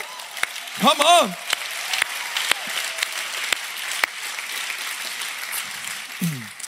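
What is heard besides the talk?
audience applause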